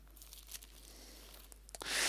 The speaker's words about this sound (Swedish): Hör du, en sak till som när vi ändå håller på att bläddra i din bibel, som jag måste poängtera bara.